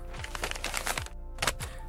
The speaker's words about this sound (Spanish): Hizo un bollo de papel con la historia y tiró ese par de hojas al cesto.